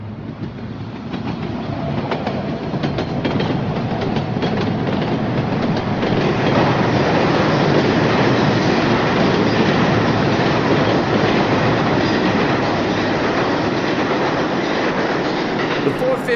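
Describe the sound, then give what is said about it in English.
A subway express train from the Bronx roars past, a loud, steady rumble with rattling, clattering wheels that holds at full strength for the whole stretch, with no one talking. “Indian Express from the Bronx, safe and sound, her occupants ignorant and unsuspecting of how they were safeguarded, of how they'll always be safeguarded.”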